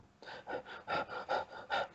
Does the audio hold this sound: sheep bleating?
no